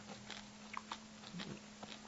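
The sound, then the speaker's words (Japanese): Soft chewing of a dry, crisp dried shiitake mushroom snack, kept in the mouth and chewed at length, with a handful of faint irregular crunches and mouth clicks over a low steady hum, and no talking. “こうやってずっと噛んでるね、これね。”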